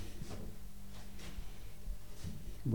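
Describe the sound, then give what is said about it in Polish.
Elevator doors slide open at the ground floor onto a courtyard with a low mechanical rumble and a steady hum, punctuated by a few soft clunks and brief whooshing movements, with no one speaking. “Drzwi się otworzyły, można wysiąść.”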